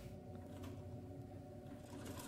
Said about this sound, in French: Et tu entends la machine à coudre.